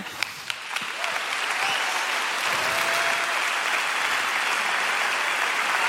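Applause from an audience welcoming a speaker onto a stage swells up and holds steady, a dense patter of many hands clapping at once, with a few sharper claps standing out at the start.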